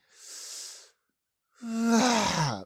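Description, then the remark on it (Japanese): A voice imitates a yawn: a breathy inhale, a short pause, then a loud drawn-out voiced exhale that groans and falls in pitch, mimicking a middle-aged man on a long-distance tour bus who let out an 'uwaa' at the end of each yawn. “その、吸って吐くの最後のところで、うわーみたいな声を出すおじさんがいたんですね。”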